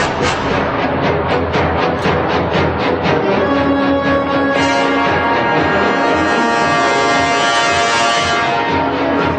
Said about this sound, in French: Ça, c'est les dents de la mer.